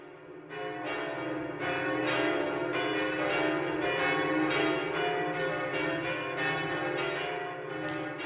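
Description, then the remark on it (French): The bells of the north tower of Notre-Dame cathedral peal loudly and continuously, several bells striking in an overlapping, irregular rhythm so their rich ringing tones blend into a sustained wash. There are no voices. “Nous écoutons les cloches de la tour nord de Notre-Dame.”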